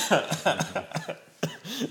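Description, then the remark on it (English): A burst of repeated coughs, fairly loud, several quick hacking bursts in succession with brief gaps, then a final stronger cough and a raspy trailing breath. “Don't make me laugh. You make me cough.”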